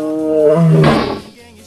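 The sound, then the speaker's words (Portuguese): A lion lets out one loud roar that starts as a deep rumbling tone, swells into a harsh, raspy blast, then quickly fades away. “Ô Leão, vem cá, Leão. Vem cá, Leão. Aqui, vem, vem, vem.”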